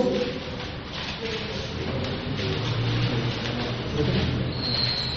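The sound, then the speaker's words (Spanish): Steady rain patters and hisses over a wide band throughout during a church sermon, fairly loud, with a faint low murmur or rumble underneath. “No se preocupe que si llueve seguimos acá.”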